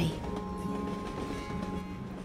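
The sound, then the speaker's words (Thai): Train wheels rumble steadily over the rails in a continuous roar, with a faint metallic hum running through it and no break in the sound. “เด็กหนุ่มได้ยินเสียงล้อรถไฟ”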